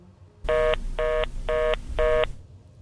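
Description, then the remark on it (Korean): After a telephone receiver is dropped, the phone tone pulses four times in an even rhythm, short electronic beeps with brief gaps between them, fairly loud over a low background rumble; no one speaks. “친구의 전화를 받은 전 넋이 나가 수화기를 떨어뜨렸고 한동안 아무 말도 아무 생각도 할 수 없었어요.”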